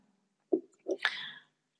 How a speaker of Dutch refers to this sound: Af en toe even een slokje thee.